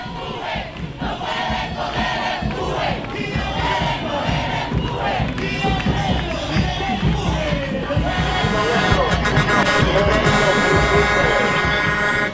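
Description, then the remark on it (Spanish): A street protest crowd shouts and chants continuously and loudly, with rhythmic bursts of many voices; toward the end a steady, buzzing horn-like tone rises over the noise. “En el mundo entero, la gente se tira a la calle a reclamar sus derechos, a exigir una mejor calidad de vida.”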